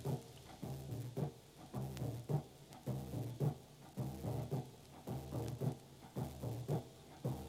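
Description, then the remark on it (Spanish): A large surdo bass drum, presented by a musician, plays a steady, booming rhythm of deep, resonant thumps. The strokes repeat at an even pace, loud, with no voices. “Este se llama zurdo grande.”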